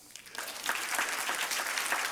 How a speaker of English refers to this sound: i tell you what, let's clap again.